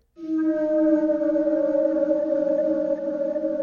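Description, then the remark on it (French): A whale sings a long, sustained moaning tone rich in overtones, gliding slightly downward as it holds steady and loud for several seconds, with no voices present. “Son chant est magnifique.”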